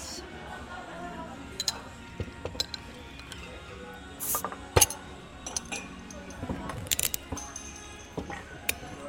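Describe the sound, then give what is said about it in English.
Soju and beer bottles clink and caps pop open in a series of sharp glassy clicks and rattles, followed by handling noises and a soft pour, with faint background murmur. “Well, shall we crack some open?”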